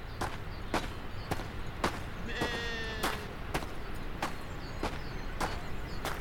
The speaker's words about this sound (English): there she is, pacing in the mud.